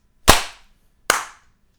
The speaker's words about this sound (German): Achtung, ich zähle runter zum Klatschen. 3, 2, 1. Ich habe zweimal geklatscht. geklatscht. Nee. Achso. Wir müssen nochmal klatschen.